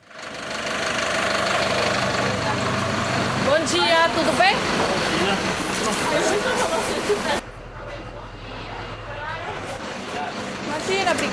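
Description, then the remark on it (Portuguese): A bus engine rumbles steadily throughout, heard from aboard the bus on a very cold day, a constant low drone that dips slightly partway through, with faint indistinct voices in the background. “Ai, já tô no ônibus, já, graças a Deus.”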